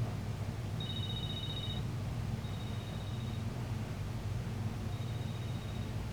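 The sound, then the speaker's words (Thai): Tawan's telephone rings with three high electronic bursts about a second long, evenly spaced, the first strongest and the later ones fainter, over a steady hiss of background noise with no talking. “เสียงโทรศัพท์ของตะวันดังขึ้น”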